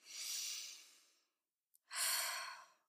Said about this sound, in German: Lass uns doch mal tief ein- und ausatmen